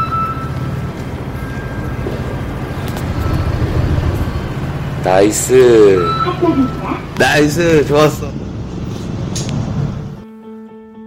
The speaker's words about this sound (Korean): 원동기 면허 시험장의 소리 들려드렸습니다. 합격입니다.